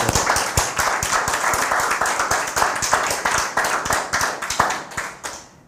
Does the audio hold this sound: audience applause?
yes